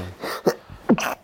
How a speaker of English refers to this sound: Bless you.